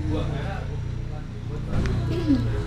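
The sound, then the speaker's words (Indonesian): A motorbike engine rumbles steadily with a low droning hum, swelling slightly toward the end, set against busy outdoor street ambience and faint background voices of people chatting. “Outdoor sekali. Iya, iya, iya. suara motor”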